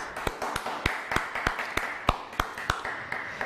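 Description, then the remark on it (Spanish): Audience applause for all the nations at a Shabbat gathering: scattered, sharp handclaps at an uneven pace, moderate in volume, with a faint steady hum or murmur underneath and no clear speech. “Shabbat amada familia, un fuerte aplauso a todas las naciones.”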